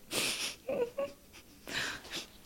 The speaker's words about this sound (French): Je voulais pas pleurer mais à la fin je, je, pleure alors que alors que j'ai tenu tout le l'enregistrement sans pleurer.